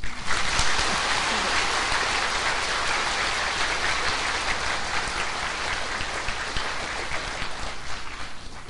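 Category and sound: crowd, audience applause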